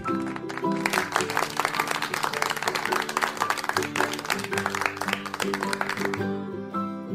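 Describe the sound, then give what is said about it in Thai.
Children clap their hands for themselves in a lively, dense burst of applause lasting several seconds, with a steady musical tone playing underneath before the clapping fades out. “เมื่อชายหนุ่มเห็นว่า เด็กๆนั้นปรบมือกันแล้ว”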